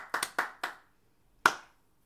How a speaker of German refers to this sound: Feste klein geschrieben, feiern groß. Toll ich fand es so genial. Toll. Da muss mal ein Applaus her.